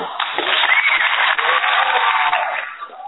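An audience applauds to welcome a guest, a dense, steady wash of clapping that holds strong for about three seconds before tapering off slightly at the end, with no voices over it.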